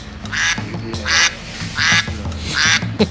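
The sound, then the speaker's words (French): A duck-quack ringtone plays on a mobile phone: four nasal quacks repeat at an even, looping pace over a steady low electronic backing, loud with no talking. “Alors un truc tout bête et qui ne coûte pas cher, enclenchez sur votre téléphone portable la sonnerie canard qu'on écoute immédiatement.”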